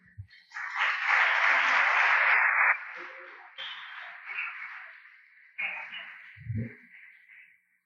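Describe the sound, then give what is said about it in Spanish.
An audience applauds the Lord during a church sermon, breaking into loud, dense applause that peaks for a couple of seconds, then settles into softer scattered clapping before fading out. “¡Aplaudo! si va a aplaudir al Señor.”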